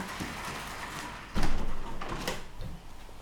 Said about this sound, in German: Schließ mal die Tür.